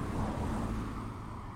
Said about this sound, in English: You heard the key turning in the ignition, and you heard the hum of the engine.